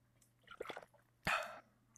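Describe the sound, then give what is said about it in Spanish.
Someone drinks: a few quick, wet gulping swallows, then a louder burst of sloshing liquid as the drink ends, with no talking. “Es que las noticias nos ponen, uff, sedientos.”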